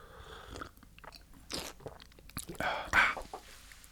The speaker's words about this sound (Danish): Jamen, jeg kan lige tage en slurk af mit her.